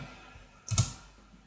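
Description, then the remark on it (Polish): A single sharp mouse click on the 'edit invite link' button, short and crisp with a faint double snap, standing out clearly against a quiet low hum with no talking. “I ja tutaj kliknę edytuj, edytuj link z zaproszeniem przycisk.”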